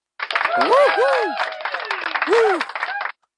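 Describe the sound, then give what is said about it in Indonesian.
A burst of crowd applause celebrating reaching day 30 of a 30-day challenge, with whooping, cheering voices rising and falling over it, holding steady for about three seconds before cutting off abruptly. “Kita beri tepuk tangan untuk podcast Raji Bersenandung.”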